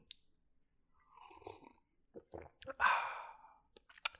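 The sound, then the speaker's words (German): Someone takes a noisy, airy slurp of coffee, followed by a long satisfied exhale, with small mouth clicks and a sharp tap at the end. “Falls ihr doch, dann äh, genießt meinen Schlürfen und vielleicht kann ich euch dazu motivieren, Pause zu machen und euch einen Kaffee zu holen.”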